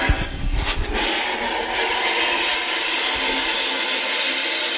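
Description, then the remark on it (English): A model train set runs with a steady whirring buzz that stays constant throughout, after a few low rumbling knocks in the first second. No one speaks. “So have a think about a name for a train set in particular”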